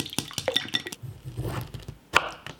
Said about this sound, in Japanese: 今朝はカニ玉のおいしい音色それではお聴きください